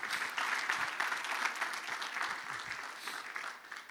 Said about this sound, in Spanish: ¿Cuántos dicen amén? Dan un aplauso al Señor.